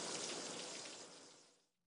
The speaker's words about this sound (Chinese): 热水器喷头中射出的湍急水柱打在陈刚赤裸的身体上。一团团热气蒸腾，向四周弥漫着。